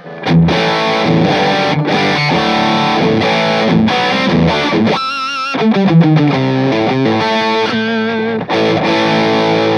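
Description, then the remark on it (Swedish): Heavily distorted, compressed electric guitar playing loud sustained chords and short riffs on an effect's last, most compressed, highest-gain setting, with a dense saturated tone and a steady background hiss filling the gaps. “Ja visst, mer komprimerat, mer gain. Ja, och sen så det här sista läget då som är... Man hör hur det börjar brusa.”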